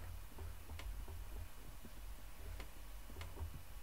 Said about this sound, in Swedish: Det är när det är varmt i rummet som det knarrar om stolen.